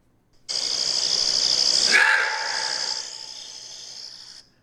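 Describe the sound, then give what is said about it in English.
A single loud, raspy roar-bark from an animal, held for about four seconds without a sharp explosive start, its harsh grating tone easing slightly before it stops. No one speaks. “So it's just a really loud bark. But it doesn't sound like a like an explosion of like bark. It's just like a roar.”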